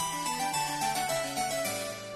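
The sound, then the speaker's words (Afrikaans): A mobile phone ringtone for an incoming call plays a song, a bright, synthetic melody of stepping notes, steady and fairly loud for about two seconds, with no voices over it. “Ooh, dis my selfoon se luidtoon.”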